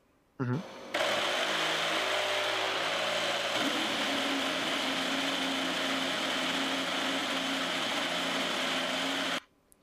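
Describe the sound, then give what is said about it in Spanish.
A 2022 Formula 1 car engine runs loud for about nine seconds, its revs shifting briefly near the start before settling into a steady, high-pitched, buzzing whine, higher-pitched than the 2021 engine, that cuts off abruptly. “Vamos a escuchar la propia comparación del motor del 2022 con el de 2021. Este es el de 2022.”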